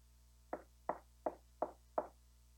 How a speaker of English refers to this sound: He knocks at the door. He's not barging in, he's not demanding entrance. He is inviting you to come to that door.